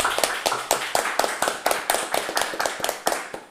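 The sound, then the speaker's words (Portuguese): Steady, fairly quick clapping from a small group, the production crew, crisp sharp slaps repeating evenly for a few seconds with no voices over it. “Uma salva de aí, palmas, salva produção de palmas, aí. Palmas, produção.”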